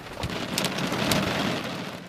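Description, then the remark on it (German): A light hail shower patters densely and steadily at a spot 200 to 300 meters above a valley, with sharper clicking impacts scattered throughout and a faint low rumble of thunder underneath. No one speaks. “Es fängt nämlich leicht an zu hageln, habe ich das Gefühl.”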